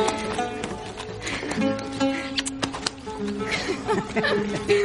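A pack donkey, led by the reins by a postman walking along a mountain, walks along, its hooves clip-clopping in a quick, uneven series of sharp knocks over a steady humming, tonal background.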